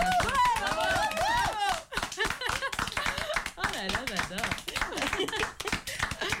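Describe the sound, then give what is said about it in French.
A burst of steady hand clapping from a small group as a show signs off for the season, quick and continuous, with voices speaking and exclaiming over it at the start before the applause carries on alone. “Ah on peut applaudir Bien sûr.”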